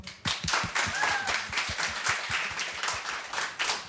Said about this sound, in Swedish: Och sen ska vi såklart uppmärksamma dagens fantastiska tekniker Nanni Johansson. Stor applåd!